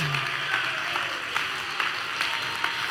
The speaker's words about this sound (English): Oh, somebody ought to clap your hands right now. Uh, somebody ought to clap your hands uh, and say, I'm going to celebrate.